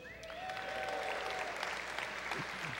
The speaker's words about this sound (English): now, you applaud either for like, oh, that's that's that's really really great, or like, whoo, dude, you didn't blow it, good job.